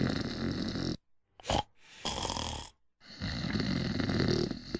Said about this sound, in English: Snoring. It's not funny, and it's definitely not normal. It's actually a sign that you're not breathing properly while you sleep. And you're probably ruining your partner's sleep as well.